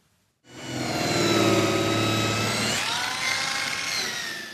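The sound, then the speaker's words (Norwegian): Sanding machines whir loudly, a steady, high-pitched mechanical whine with grinding texture, finishing wooden parts that become joints in a garage door at furniture firm Feel Free Production in Eid, Sogn og Fjordane, Norway. It starts abruptly after a brief silence and shifts pitch partway through as it works the material. “Med erfarne hender blir de til ledd i en garasjeport, finpussa med slipemaskiner.”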